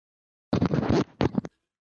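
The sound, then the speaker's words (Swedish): A loud zipper being pulled up rasps for about half a second, then comes a brief pause and two or three short, scratchy tugs. No one speaks. “Nu drog han upp dragkedjan.”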